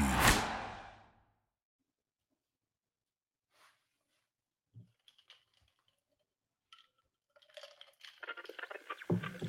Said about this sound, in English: I'm telling you, the clinking of the uh, ice cubes in the glass.